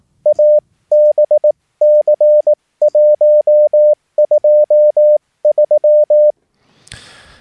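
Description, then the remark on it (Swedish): A clear, steady mid-pitched tone keys out the Morse code call sign ABC123 in CW, sent in reply to a general call: crisp short and long beeps in several quick groups, followed by a brief burst of noise. “Så det är eh, ABC123 och då sänder bara ABC123 sin anropssignal.”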